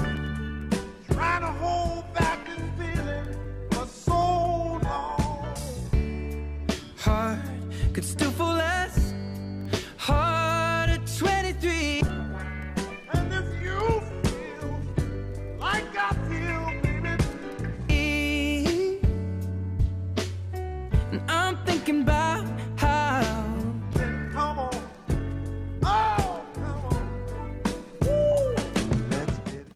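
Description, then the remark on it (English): Two pop songs blended into one continuous track in the same key, with a steady driving beat, a full band and melodic singing running loud and unbroken throughout. “kind of spliced into each other, put into the same key.”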